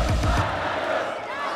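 A crowd cheers and claps loudly, a dense wash of shouts and applause with a few low vocal bursts at the start, holding steady throughout.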